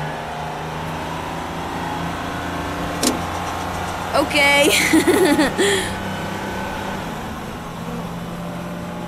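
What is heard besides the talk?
car engine approaching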